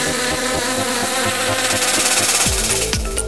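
A steady buzzing like a bee drones loudly throughout, set against a rhythmic musical beat that shifts near the end. No one speaks. It is the bee-buzz jingle of the segment La Minute qui bourdonne, presented by La Ruche.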